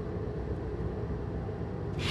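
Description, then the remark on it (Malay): Steady low engine rumble of a car moving at speed, a continuous drone with road noise and a brief rise in hiss near the end, no voices. “kau janganlah buat laju sangat. Aku takutlah.”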